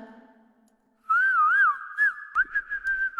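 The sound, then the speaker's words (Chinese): Someone whistles a loud, clear tune with wavering, trilling pitch that slides up and down, then holds a steadier note for a couple of seconds after a brief faint murmur. “我是个会吹哨的人。”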